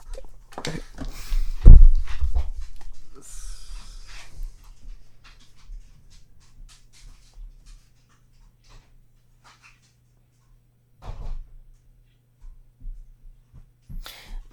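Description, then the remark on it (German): A dog pants and stirs restlessly, with scuffling movement and a loud thump early on, then quieter shuffling and a few more soft bumps after a near-silent stretch. “Ich glaube, ich muss mal meinen Hund kurz woanders sehen, weil die wird gerade.”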